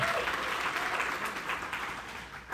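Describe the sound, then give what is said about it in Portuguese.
A church audience applauds the word of God, a steady, dense patter of many hands clapping that holds at an even level for a few seconds before thinning slightly at the end. “Vamos aplaudir a palavra de Deus, é muito linda.”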